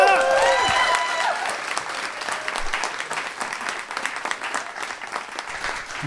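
An audience breaks into applause, a dense patter of many hands clapping steadily for several seconds, opening with a brief cheerful tonal flourish before the clapping carries on at an even level.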